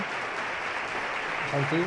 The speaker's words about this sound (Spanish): Marcha bastante aplaudida por el, por el público. La verdad es que la interpretación de la banda municipal de Jaén, pues como siempre, ¿no? A una altura bastante alta.